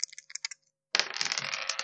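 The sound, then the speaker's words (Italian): Two dice rattle with a few quick clicks, go quiet for a moment, then clatter loudly and continuously as they tumble across a hard surface, landing on a 6 and a 4, with no voices. “È un 6 e un 4, grandissimo.”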